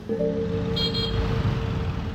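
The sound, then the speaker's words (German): Car horns honk over a steady rumble of congested traffic in Bali, heard from inside a car on the road from Ubud to Changu, one long sustained blare holding through most of the stretch while engines drone underneath, fairly loud. “Aber auch das ist Bali. Stau, Verkehrschaos, Infrastrukturkollaps.”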